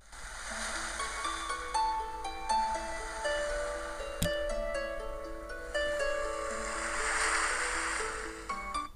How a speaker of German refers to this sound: Der sich der ähm, der sich anpasst an die Jahreszeit. Wow. Ja. Okay. Ähm, das war jetzt so ein bisschen Meeresrauschen. Das war jetzt, ja, ja. Das, das war ein bisschen Harfe mit Meeresrauschen. Das würde dann quasi im Sommer kommen